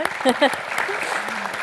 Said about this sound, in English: applause for that